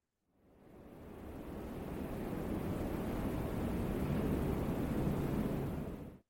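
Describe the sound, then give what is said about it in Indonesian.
Steady, broad rushing wind on a cold, windy night at Banyu Dono, blowing without pause for several seconds, swelling in gently at the start and holding a constant, fairly loud roar before cutting off. No voices are present. “Malam dingin dan berangin di Banyu Dono”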